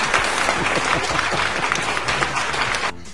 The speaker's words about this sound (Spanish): Aplausos para el Cacas. No sé quién demonios es el Cacas, pero aplausos para el pinche Cacas.